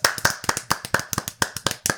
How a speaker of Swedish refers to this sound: Jag, jag vill applådera.